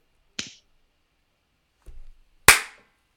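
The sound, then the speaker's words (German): Two sharp slapping claps ring out, a lighter one first and a louder, crisp smack about two seconds later, with a soft low thud just before the second. “Nee, aber das Klatschgeräusch war eigentlich das hier.”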